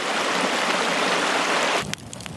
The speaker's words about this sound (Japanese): 川のせせらぎ